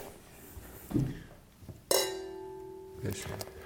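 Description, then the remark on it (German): Two mouth-blown wine glasses holding a 1995 single-variety Sangiovese from Tuscany clink once in a toast, a sharp tap followed by a short, somewhat dull ringing tone that fades within a second, with faint voices and handling sounds around it. “Sie klingen nicht so richtig schön, ne? Nee, das ist aber bei den meisten Mundgeblasen das so.”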